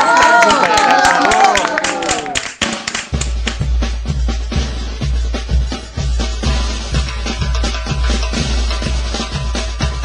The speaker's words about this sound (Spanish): Un aplauso. Un aplauso para la